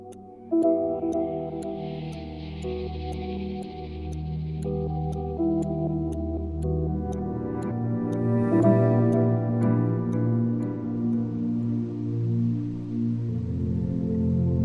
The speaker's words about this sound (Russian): Часы.